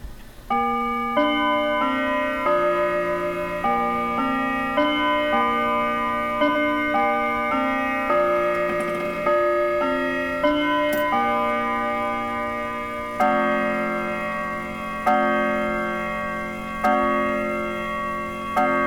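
An analog clock strikes 12 noon: a long run of slow, evenly spaced chimes, each ringing bell-like tone overlapping the fading one before it, steady and clear with no voices.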